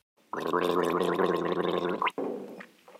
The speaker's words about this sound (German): Dann nehme ich einen Schluck, lege den Kopf in den Nacken und gurgle. Das soll mein Rachenzäpfchen in Bewegung bringen, denn dort entsteht das Zäpfchen R.